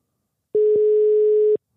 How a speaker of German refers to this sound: Es klingelt schon mal.